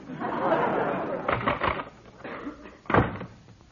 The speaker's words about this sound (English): the door closed.